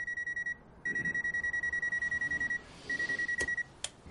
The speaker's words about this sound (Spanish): Un hombre está en la cama cuando suena el despertador.